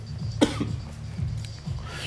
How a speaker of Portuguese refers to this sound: Uma tossidinha.